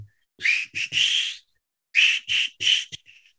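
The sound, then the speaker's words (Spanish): Someone whistles a familiar song melody, two short phrases of sustained notes with a brief pause between them, clear and fairly loud with no talking. “la canción esta de … de, del silbidito que, yo creo que todos conocemos”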